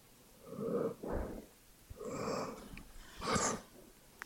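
A sleeping dog lying beside a person, its cold nose against theirs, breathes slowly and steadily, a handful of soft, even, quiet in-and-out breaths with a faint nasal wheeze, with no other sounds around.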